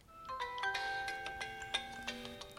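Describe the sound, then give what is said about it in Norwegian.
A phone ringtone plays a bright, repeating electronic melody of stacked tones with a steady rhythm, moderately loud, with no voices over it. The phone rings in mid-April 2020 with a call from Modum Bad. “Jeg er derfor eh, ganske så uforberedt når telefonen ringer i midten av april.”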